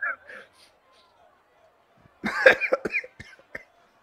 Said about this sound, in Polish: Słyszycie, że łapie go kaszel. Dość intensywny.